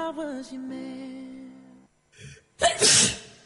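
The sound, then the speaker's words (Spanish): A drawn-out, wavering "ahh" builds up, then a short pause and a catch of breath before one loud sneeze bursts out and fades. “Todas las personas cierran los ojos al estornudar.”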